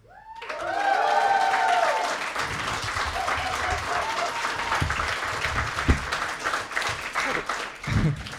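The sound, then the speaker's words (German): A live audience bursts into loud, sustained applause for a co-host being introduced, with whoops and cheers near the start, the clapping holding steady for several seconds before tapering slightly. “Äh, lass doch mal was hören für”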